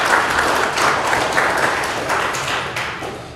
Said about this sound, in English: And um, sure, go ahead, clap for them.